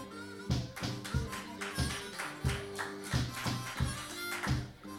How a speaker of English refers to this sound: That was like a golf clap, like a three foot putt.